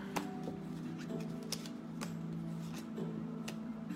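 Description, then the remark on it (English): Tarot cards being shuffled: a string of sharp, irregular flicks and snaps over a steady low musical hum, with no one talking. “it is time for you to get your reading. Feeling a shuffle.”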